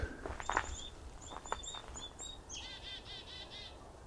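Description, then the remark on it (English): A chickadee calls outdoors: a few high, thin chips, then a quick run of buzzy, repeated notes, fairly faint, with no talking. “So usually chickadees are a good way to find a flock.”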